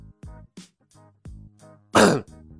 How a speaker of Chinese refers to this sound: 一声咳嗽从车厢外传来。